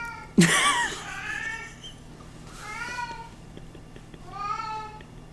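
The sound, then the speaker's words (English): A cat meows and caterwauls in three drawn-out, wavering yowls, the first loud with a sharp start, the later two softer, separated by short pauses. “If anyone wants free cat sounds, just take those.”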